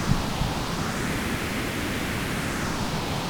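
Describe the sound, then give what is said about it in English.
Dense synthesized noise runs steadily throughout, its hissing tone shifting slowly as a resonant filter sweeps across it, with five stages, the sweep oscillator set to 0.5 and resonance about halfway, giving a soft, whooshing, wind-like movement with no voices present. “But as I start, if I put the stages into, let's say, five, and then sweep, and I'll move the sweep oscillator down to 0.5, turn the resonance up to about halfway, you can hear the, that's the sweep oscillator”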